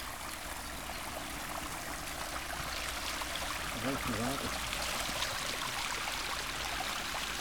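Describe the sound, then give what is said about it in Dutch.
Steady rushing water tumbles down a stepped cascade, a continuous, fairly close splashing wash that never lets up, with a brief murmur of a voice partway through. “het geluid wat het meest opvalt, dat is dat van eh, water dat over een trap naar beneden komt. Een heerlijk rustgevend geluid.”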